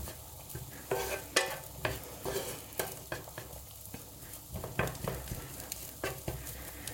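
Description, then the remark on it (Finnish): Salted food sizzles and crackles in a hot pan with a little oil in the bottom, while a utensil scrapes and stirs through it in irregular strokes, breaking up large chunks, with sharp scraping accents recurring every second or so, fairly loud, no voices. “Ja mä edelleen tätä yritän, kun tässä on tosi paljon tällaista näitä isoja kohtia, niin mitä pienemmäksi ne saa, niin sitä enemmän ne öljyyntyy ja tota, niin siis jo pistin sinne pohjalle vähän öljyä.”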